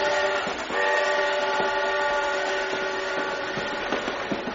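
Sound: train running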